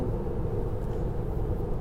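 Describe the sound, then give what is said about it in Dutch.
A steady, low rumble of highway traffic drones on without a break, dense road noise at a constant level with no voices and no single car standing out from the rest. “oh, ik zit er inmiddels op de snelweg en eh, er zijn nog wel wat auto's die heen en weer gaan.”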